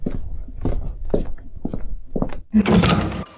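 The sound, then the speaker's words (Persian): The door of a home being opened for a visitor: several soft, uneven thumps and handling knocks, then a brief louder scraping rush as it swings open, with no voices. “الان میام در رو باز میکنم زنگمون خرابه”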